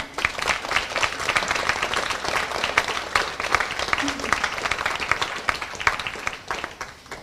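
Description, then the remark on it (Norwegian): An audience claps steadily in sustained applause for author Martha Breen, a dense wash of many hands at fairly loud volume for several seconds before easing off slightly at the end. “I en stor og god applaus til Martha Breen.”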